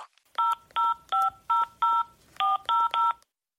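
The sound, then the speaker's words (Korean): A quick run of eight telephone keypad beeps, each a short steady dual-tone press, spaced in a brisk uneven rhythm as a bank account number is dialed into an automated phone banking service for a balance inquiry. No voices. “계좌번호와 샵 버튼을 눌러주십시오.”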